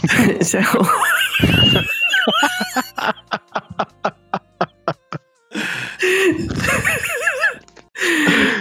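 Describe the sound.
A voice imitates a horse's whinny: a wavering, quavering cry, then a run of quick breathy pulses, followed by more warbling calls. Other voices are heard around it.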